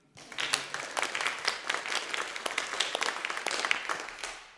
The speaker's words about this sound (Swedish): det där var ju härligt. Vi ger dem en applåd.